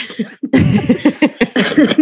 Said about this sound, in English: Excuse me. I still have this cough, by the way.